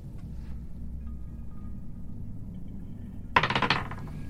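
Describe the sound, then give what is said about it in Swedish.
After a quiet stretch, a short burst of clattering clicks as dice are rolled across a hard tabletop for a presence check in a role-playing game, a fairly loud rattle lasting under half a second before settling. “Mm rolla en eh, närvaro.”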